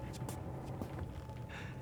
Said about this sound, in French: Il était tard dans la nuit lorsque j'entendis le premier bruit. Bruit de pas.